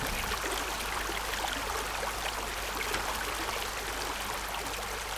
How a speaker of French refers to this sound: Tout ce à quoi j'aspire maintenant que je suis mort, c'est de profiter de la rivière, le bruit de l'eau, les sons de la nature.